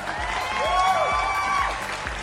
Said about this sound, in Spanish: No tengo pretexto, pero tengo buenas intenciones. Aplausos a mis buenas intenciones.